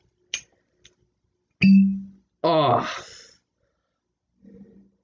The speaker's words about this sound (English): If you're gonna buy, I, think any bottle of alcohol, if you can get one with a little cork on it, buy that because it's so much fun to open. Like, like hear this, like, like here, a little ASMR for